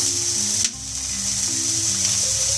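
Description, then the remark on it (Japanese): Steady, crackling sizzle of ground pork frying in a hot pan, a continuous bright hiss with a brief louder flare partway through and faint low humming underneath, fairly loud. “今日はあるものがないおかげで辛くないバージョンになってます3つ目尽くしてる感があるところですこの音とか”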